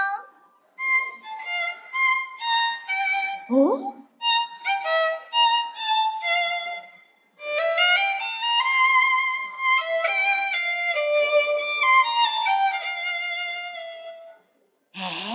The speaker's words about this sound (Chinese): 帮我们演奏一小段小提琴的声音